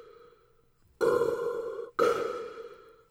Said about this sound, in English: I that was me I, me breathing into a glass. It sounded like you were like just trying to get up the little last bit of soda with a straw, but you couldn't quite get it.